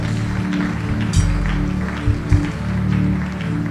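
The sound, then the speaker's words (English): A Koinonia audience claps steadily for several seconds for people coming forward as they run to the front: a dense, continuous patter of many hands over a low droning hum, with a few slightly louder bursts along the way. “I'm only going to count one to five I want you to run we have just one minute for you Koinonia let's begin to clap for them as they come”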